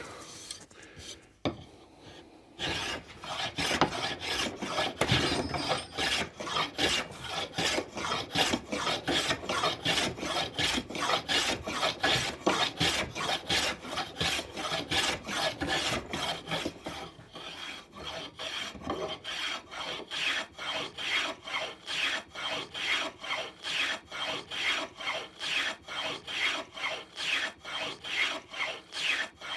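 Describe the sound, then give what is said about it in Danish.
A sharp hand plane shaves wood at a planing bench in a long run of steady rasping strokes, the rhythm growing quicker and more even toward the end, with no talking. “Ja, man kan godt lige prøve at om man kan høvle skal lige justere lidt.”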